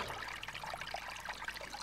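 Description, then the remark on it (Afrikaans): Water from an underground lake seeps through rock, trickling and dripping steadily in a continuous, fairly quiet wash, with small bright splashes popping out irregularly. No one speaks. “'n Onderwatermeer wat deur die klip uitsyfer.”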